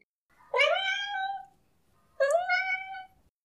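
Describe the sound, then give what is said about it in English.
A cat named Ocean meows twice, each call a drawn-out, rising then falling tone lasting about a second, with a short pause between them; fairly loud, no other sounds around. “Ocean meowed once again”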